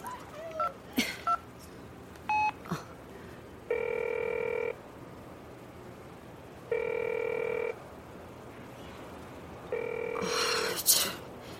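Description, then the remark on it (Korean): A phone ringback tone repeats three times in evenly spaced, steady bursts of about a second each, with a few short beeps and clicks beforehand and no one picking up. “전화도 안 받네.”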